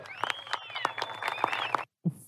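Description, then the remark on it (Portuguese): Scattered, uneven clapping from a small group, sharp claps at an irregular pace over a murmur of voices, then cutting off abruptly into brief silence. “O foda desses eventos é que quando um cara puxa aplauso é sempre meio constrangedor, né?”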